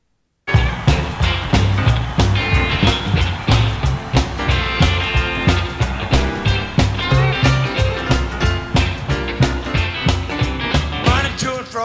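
An upbeat classic rock and roll song plays loud and steady, with a driving drum beat, bright guitar and a singing voice riding over the full band throughout.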